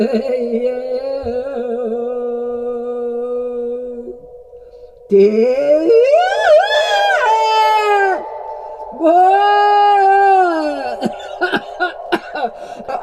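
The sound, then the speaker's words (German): Vocal sounds echoing through artist Mary Bauermeister's echo tube: a steady hollow hum, then two loud wavering wails that sweep upward with metallic ringing overtones, ending in scattered faint clicks. “da kann man rein husten und lachen und schreien und brüllen und singen.”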